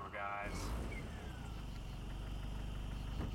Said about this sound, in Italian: Ah, la macchina è andata in panne. Eh. Esce il fumo dal motore.